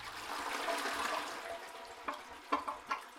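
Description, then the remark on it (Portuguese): A toilet flushes with a steady rush of water that gradually fades, then a few gurgles and hollow clunks as the bowl drains. No one speaks. “Afinal, se não fosse assim, a gente não ia usar uma descarga que libera 10 litros ou mais de água cada vez que você vai ao banheiro, né?”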